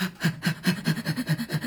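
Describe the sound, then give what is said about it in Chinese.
A person imitates the panting of a very large leashed dog with a huge open mouth, seen near a convenience store: quick, breathy huffs in a steady rhythm, about eight short pulses in under two seconds, moderately loud with no other voices. “远远的你就听得到他在这个喘气的声音。”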